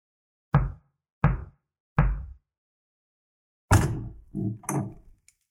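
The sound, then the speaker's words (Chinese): Three firm, evenly spaced knocks on the door of a blue-roofed house, a pause, then a burst of a latch and a short creaking swing as a skeleton couple opens the door. No one speaks. “这一次开门的是一对骨头人夫妻”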